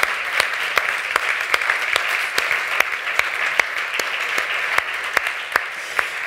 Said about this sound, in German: Vielleicht können wir noch mal einmal einen Applaus geben für die Leute, die daran gearbeitet haben, die den Umbau hier mitstemmen.